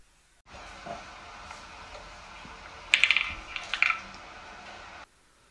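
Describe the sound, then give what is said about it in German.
Chess pieces and a game clock being tapped by Magnus Carlsen in a rapid game at the World Rapid Chess Championship, two quick clusters of sharp clicks over a steady background hiss, with no voices. “Ist der Magnus Carlsen bei der Schach World Rapid WM.”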